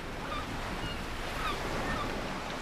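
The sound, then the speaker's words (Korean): Steady wash of waves with gusty wind fills the scene at Gangguan harbor in Tongyeong, South Korea, while several faint gull calls cry out intermittently above the surf. “백고동 소리, 갈매기 소리 들리는 강구 안으로요.”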